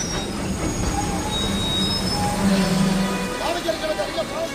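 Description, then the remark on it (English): A train from Mahabad pulls in with its wheels squealing in thin, high metallic screeches over a steady, heavy rumble of rolling carriages, while indistinct voices murmur in the background. “As the passengers from Mahabad clamber down from the train with the usual noisy pantomime,”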